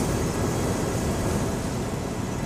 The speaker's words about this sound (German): Was wir hören, ist ein elektrischer Rollstuhl der gerade mit Power durch die Brücke pest. Äh, Brücke ist es gar nicht. Ich spreche natürlich am Tunnel. Das ist hier offensichtlich die offizielle Rentnerrennbahn von Rendsburg.